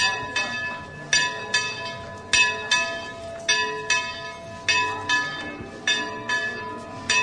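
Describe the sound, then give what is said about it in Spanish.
The bell tower of the Oblate Sisters' convent rings out in a quick, uneven peal, each bright metallic strike overlapping the ringing hum of the last, repeating steadily for several seconds with no talking. “Suena el campanil de las hermanas oblatas.”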